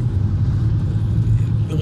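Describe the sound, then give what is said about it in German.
A steady low rumble of a car driving, like road and engine noise heard from inside, holding evenly throughout without a break. “Es ist nämlich höchst faszinierend, oh Gott, wie hier Leute fahren.”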